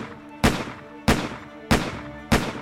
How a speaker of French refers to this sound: Il referme la porte derrière elle, et une poignée de secondes plus tard, Six coups de feu claquent dans le bureau.